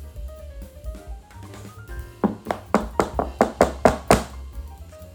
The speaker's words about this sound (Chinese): 就在这个时候，不知道是从哪里传来了敲打的声音，大家吓得缩成一团。没想到竟然是隔壁的小屁猪。